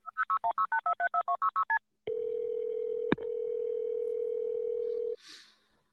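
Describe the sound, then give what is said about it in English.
A quick, even run of about a dozen touch-tone beeps as a 911 call to Ottawa County 911 is dialed, then a loud, steady ringing tone holds for around three seconds before cutting off. No one speaks. “So here we're going to listen to the first 911 call unless you got something else,”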